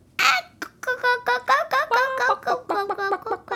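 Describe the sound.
A person imitates a chicken with a quick series of nasal, voiced clucks, about a dozen short bursts in an uneven rhythm, fairly loud, with no other talking.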